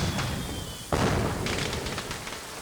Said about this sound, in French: On voit au loin, tiré depuis la villa du Maharaja Limousine, un feu d'artifice. Magnifique. C'est beau. On n'a jamais vu de spectacle aussi sensationnel dans la région.